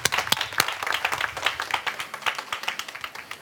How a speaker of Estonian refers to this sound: juba algus on pidulik ja uhke, sest sõna saab minister Jaak Aab. näitame aplausiga, et meid on siin rohkem kui see publik siin. Jaak, aga palun.